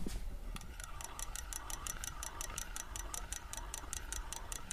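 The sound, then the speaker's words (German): An old fishing reel with a plastic body and a bail being cranked: a steady stream of quick, even clicks about five per second, with a faint wavering mechanical whir underneath, fairly quiet, no voices. “Im Gegensatz zu den, zu den heutigen Rollen, also da würde ich jetzt auch nicht mehr mit angeln wollen, muss ich ehrlich sagen”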